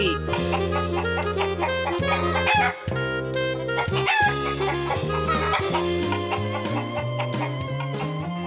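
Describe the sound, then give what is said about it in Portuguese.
Chickens cluck and a rooster crows over a loud, busy musical backing introducing another adventure of the Galinha Viajante (Travelling Chicken), the bird calls repeating throughout like a playful jingle, with no talking. “agora mais uma aventura da Galinha Viajante.”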